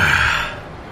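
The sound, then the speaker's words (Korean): The horn of a ship coming into port sounds one long, steady blast that is loud at first and then fades as it trails off. No one speaks over it. “배꼬동 소리 들리죠?”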